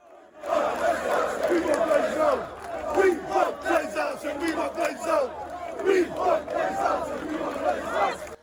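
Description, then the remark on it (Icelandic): A large crowd of Manchester United supporters chants and shouts in protest against the club's owners, the Glazer family, many voices blending into a loud, continuous roar with rhythmic rises and swells throughout. “Fjölmarkir stuðningsmenn Manchester United hafa verið afar ósáttir við Gleisir fjölskylduna frá því hún keifti liðið árið 2005 og þeir láta gerðnan í sér heyra.”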